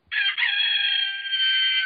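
A rooster crows once, a loud, drawn-out cock-a-doodle-doo lasting nearly two seconds, heard on its own with no talking over it; it comes from a small object kept at home.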